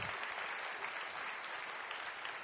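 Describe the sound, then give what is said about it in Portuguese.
A crowd claps steadily and densely for the Lord, a sustained wash of many hands applauding together at an even level, with no clear voices standing out. “Quantos, quantos podem How aplaudir like ao Senhor por isso?”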